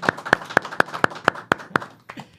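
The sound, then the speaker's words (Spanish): A short burst of applause welcoming a special guest: about eight sharp, evenly spaced claps in a steady rhythm, followed by a couple of softer claps as it trails off. No one speaks. “eh, que pido un aplauso para él, por favor.”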